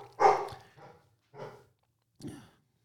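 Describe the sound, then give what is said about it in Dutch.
A dog named Wobbe barks three times, a loud first bark followed by two shorter ones spaced about a second apart, with quiet pauses between and no talking. “goede voornemen is minder blaffen.”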